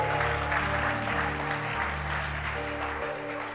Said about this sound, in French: Nous avons euh, choisi cette chanson pour bénir Dieu pour ta vie. Est-ce qu'on peut acclamer très fort pour le Seigneur